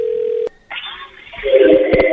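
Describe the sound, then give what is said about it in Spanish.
A steady telephone tone holds for half a second and cuts off with a click, followed by thin line hiss and then louder, buzzing ring-like tones over a telephone connection, as a prank phone call is placed. “Esto es una broma telefónica.”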